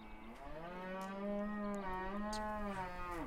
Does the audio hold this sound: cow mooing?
yes